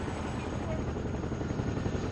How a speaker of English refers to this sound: And that latest chopper just landed.